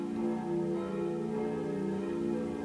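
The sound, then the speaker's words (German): A church bell rings steadily with a sustained, resonant hum, its overtones lingering continuously at moderate volume with no voices present. “Also diese Kirchenglocke wird euch jetzt wahrscheinlich Die Kirchenglocke, begleiten.”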